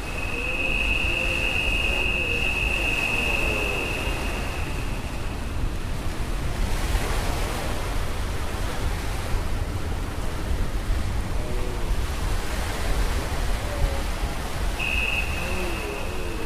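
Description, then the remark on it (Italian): A steady, continuous wash of sea waves on the shore fills the scene, with faint voices underneath and a thin high whine that fades in and out. “Lo senti il mare?”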